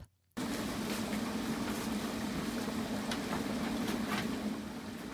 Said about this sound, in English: Does that boiling sap sound sound familiar?